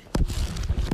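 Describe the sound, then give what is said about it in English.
A book is handled, with two sharp, papery taps at the start and end and soft dull knocks and rustling in between. No one speaks. “That's the sound of my book.”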